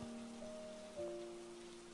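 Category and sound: nature, rain falling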